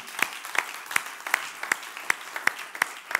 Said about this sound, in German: Und ich sage euch, diese Leute, die machen so einen guten Job, oder? Die sind so gut. Lass mal einen Applaus denen geben.